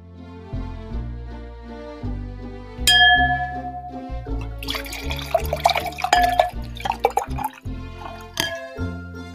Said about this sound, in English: Well, the sounds of sherry being poured lets us know it's time to head back to the Christmas kitchen for Mrs. Claus's tasty treats for your holiday fun times.